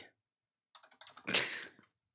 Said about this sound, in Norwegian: Jeg, jeg googler nå. Dere blir å høre litt sånn eh, tasting her, men det, det er viktig at vi får den inn.